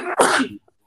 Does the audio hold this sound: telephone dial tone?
no